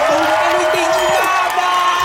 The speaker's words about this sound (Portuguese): Todos bateram palmas e deram vivas.